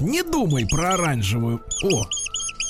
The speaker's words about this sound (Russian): это крыса? Это крыса. Ну, когда Это от удовольствия